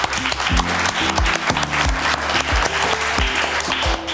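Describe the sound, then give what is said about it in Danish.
A live audience in a hall at Dokken in Aarhus, at an event for the Lidex Festival, claps and cheers steadily for about four seconds, a dense, loud wash of handclaps over a steady low thumping beat and sustained tones underneath. “og vi sidder i en sal med publikum på Dokken øh, i anledning af Lidex Festivalen, og det er en ægte fysisk begivenhed med ægte publikum, så må vi ikke lige have lov til at høre Kim Jensen hånd.”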